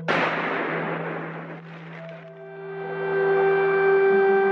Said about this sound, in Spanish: ¿Cómo suena la guerra? Quizá tras un año aquí, el sonido más, más íntimo de la guerra para mí, porque sueño con él, son las explosiones.